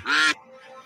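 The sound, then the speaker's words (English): A single loud, nasal duck quack sound effect from a duck race game bursts out for about a third of a second, then fades to a faint, low background hum. No one speaks. “Hopefully, everyone can hear the quacks.”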